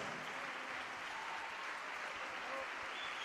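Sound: auditorium audience applause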